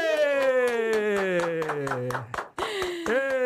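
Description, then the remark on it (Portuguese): A small team claps in a steady, rhythmic beat while voices whoop and cheer with long, sliding tones, loud, over about three and a half seconds, welcoming a clinical nutritionist as a guest. “Aplausos da minha equipe!”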